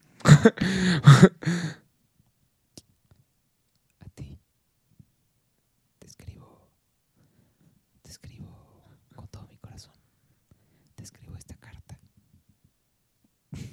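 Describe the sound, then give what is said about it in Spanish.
A brief loud voiced burst at the start gives way to soft ASMR-style whispering into the microphone, delivered in short, breathy phrases separated by stretches of near silence. “Ah, ¿Por qué no hacemos ASMR, güey?”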